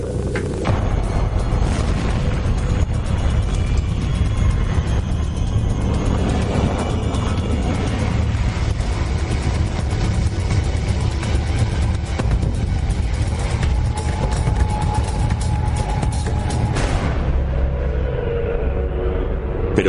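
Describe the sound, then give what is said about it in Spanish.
A continuous roaring, crackling hiss of converted radio noise from Jupiter, dense and steady throughout, with fluttering bursts like surf or rapid tapping, fading near the end. “Algunos oyentes describen estos sonidos como de pájaros carpinteros u olas batiendo en una playa.”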